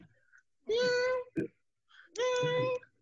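A cat meows twice, two long, clear, fairly loud drawn-out meows separated by a short pause, with a brief soft rustle between them and no talking.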